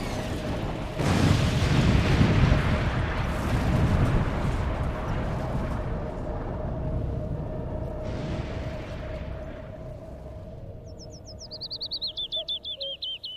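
A falling meteorite makes a steady, high whine that gives way to a sudden loud explosion, followed by a long rumbling roar that slowly fades, with the whine lingering and birds chirping at the end.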